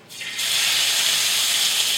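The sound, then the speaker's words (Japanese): Bite-sized pieces of chicken thigh, about 350 g, hit about a tablespoon of hot olive oil in a frying pan and burst into a loud, steady sizzle that holds without a break, with no talking. “これ、まあ適当です 350g ぐらいありますかねこれをちょっと一口大に切っていきます切りましたらですねフライパンに火をかけてオリーブオイルを大さじ1杯ほど引きますでちょっとなじませてここにですね鶏肉をドサーッと入れましょう”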